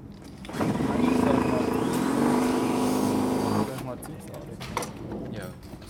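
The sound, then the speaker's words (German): A solar-powered electric car on one of its first test runs drives past with a steady motor whine and road noise for about three seconds, then fades away as people talk. “Das ist eine der ersten Probefahrten, oder wie?”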